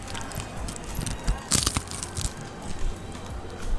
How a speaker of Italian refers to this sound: Siccome abbiamo in mano una piadina che è particolarmente croccante, allora io ti chiedo a favore di microfono di addentarla e far sentire di cosa stiamo parlando.